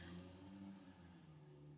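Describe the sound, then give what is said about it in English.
A car engine rumbles steadily outside, heard through an open window, its low drone and faint revving audible, with no one speaking. “But sorry for that car. I have my window open.”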